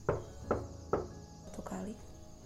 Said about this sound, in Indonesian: Tiba-tiba ada suara ketukan di depan pintu